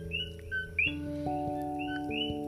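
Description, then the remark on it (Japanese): Several coqui frogs call at night in quick succession, their short, bird-like two-note chirps overlapping at moderate volume above a steady, low electrical-sounding hum; the calling goes on all night until morning. “これね実はカエルなんですよコーキーフログと呼ばれるカエルなんですけれどもこうやって夜になるとコキコキってまるで鳥のような声ですよね”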